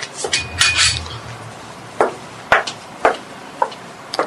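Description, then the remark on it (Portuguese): Dishes and cutlery clink and clatter at the sink while someone washes up, with a cluster of rattling at first, then sharp single knocks about every half second over a low running-water hum. “Vou lavar a louça.”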